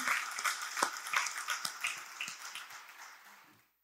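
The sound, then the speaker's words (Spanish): An audience breaks into loud, sustained applause for Jesus, dense overlapping claps with sharp individual hits, holding steady for a few seconds before tapering off and fading to silence. “Si Él es tu Salvador, dale un aplauso fuerte.”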